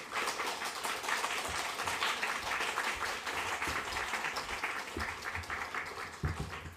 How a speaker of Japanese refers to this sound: …先生です拍手を持ってお迎えしていきたいと思います